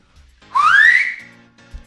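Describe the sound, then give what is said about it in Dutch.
A person whistles one rising, sliding note lasting about a second, fairly loud, with no talking over it. “Nou, fluit nu maar niet meer.”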